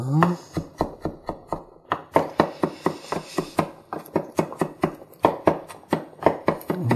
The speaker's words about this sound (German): So, wenn ihr jetzt frische Petersilie habt, dann schneidet ihr die jetzt auch und, und hackt die dann auch. So.